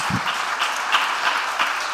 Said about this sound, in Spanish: ¿Cuántos lo creen en esta hora? y aplauden fuerte al Señor. Vamos.